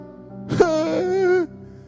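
A man arrested for international drug trafficking lets out a single drawn-out, quavering sob, a wailing moan that wavers and tails off after about a second, fairly loud, with no speech around it.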